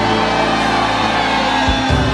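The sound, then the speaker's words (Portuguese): A church audience shouts and whoops together in sustained, loud jubilation, a dense wall of voices filling the whole stretch without a break. “Será que tem aquele grito de vitória, aquele grito de júbilo?”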